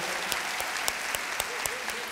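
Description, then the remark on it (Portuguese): A church audience applauds the serving deacons, a dense wash of many hands clapping, with sharper claps falling together in a steady, quick rhythm about four times a second, holding at an even loudness throughout. “Vamos dar uma salva de palmas aos diáconos que estão aí servindo.”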